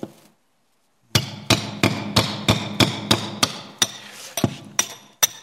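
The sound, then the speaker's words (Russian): A hammer pounds a nail about eleven times in a steady, fairly quick rhythm, each blow a sharp, loud metallic knock, starting after a moment of silence. “Некоторые, сейчас, подождите, сейчас я возьму чем-нибудь, не хочу мараться уже. Некоторых этот гвоздь гордости так торчит.”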